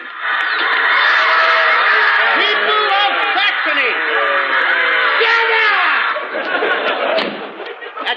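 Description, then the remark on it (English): A large crowd of people shouts and clamors continuously, many overlapping voices blending into a loud, dense roar with occasional rising yells standing out, holding steady before easing slightly near the end. The people have been shouting for five days. “Listen to the people shouting. They have been shouting for five days, but I dare not speak to them.”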